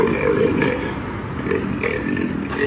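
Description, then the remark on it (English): Rough grunting from a lion being carried by a woman down a street, a series of low guttural growls and huffs rising and falling continuously for a few seconds with no talking. “making all sorts of very liony noises.”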